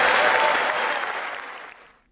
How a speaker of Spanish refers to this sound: Y así Biden pidió a todos que enviaran una señal inconfundible al mundo con este aplauso, mientras muchos invitados portaban pequeñas banderas de Ucrania en los bolsillos y en las manos.